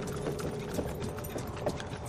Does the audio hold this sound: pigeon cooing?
no